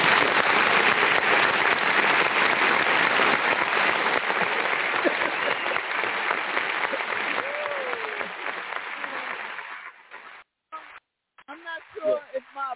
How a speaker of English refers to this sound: applause button sounds more like applause or fried chicken uh, chicken fried.